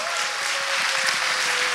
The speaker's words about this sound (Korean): 네, 아 박수 한번 주세요. 네, 와우. 감사합니다.